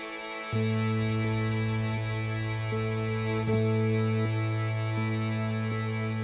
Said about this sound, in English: And the violin, I love the violin. That's just to me is the icing on the cake. Let's listen to the song